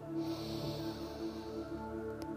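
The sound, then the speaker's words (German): One long, deep breath drawn in through the nose during a guided breathing exercise, a steady airy sniffing hiss lasting a couple of seconds over soft sustained background tones, with no talking. “Wir atmen tief durch die Nase ein”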